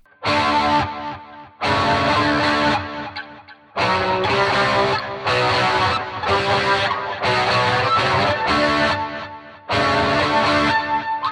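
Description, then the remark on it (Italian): A loud, overdriven electric guitar played through a Vox amplifier rings out in bursts of thick, sustained chords separated by short pauses, with no voices. “si è sempre avvalso molto del, ehm, degli amplificatori Vox, potrei andare a trovare il suono giusto per fare una cosa come questa.”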